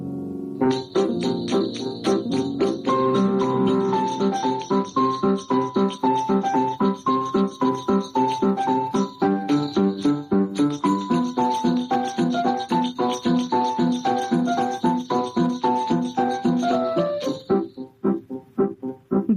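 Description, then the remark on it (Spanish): A lively Spanish copla song sung by a male Spanish copla singer plays at full volume, with a steady driving rhythm, jingling bells and melodic instruments throughout, before stopping abruptly near the end. “gran cantaor español de coplas”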